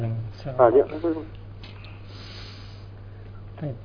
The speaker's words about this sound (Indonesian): Ulang lagi nafasnya. Ambil nafas dulu yang banyak pak ya. Ambil nafas yang banyak, baru ya, baca.